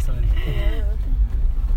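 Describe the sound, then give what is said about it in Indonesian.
A large car passes by with a deep, steady engine rumble, with a person's voice briefly audible over it near the start. “jeda sebentar ya, iya, ya. mobil gede iya,”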